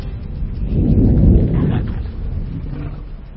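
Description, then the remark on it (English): A deep, thunder-like rumble from underground rolls in loud, swelling to a peak after about a second and then slowly fading, with no voices over it. “I'm sure it was just thunder from underground.”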